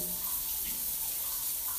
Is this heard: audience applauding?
no